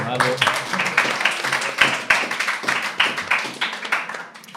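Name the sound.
applause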